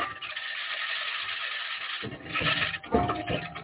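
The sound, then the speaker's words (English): A continuous gritty scratching and rasping as a rover's wheels grind over the surface of Mars grows louder and coarser halfway through, with a faint steady whine from the rover's electronics running beneath. “scratching is the sound of the wheels in contact with the surface of Mars.”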